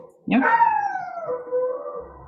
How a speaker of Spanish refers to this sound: ¿Se escucha mi perro? Demasiado ruido, weón.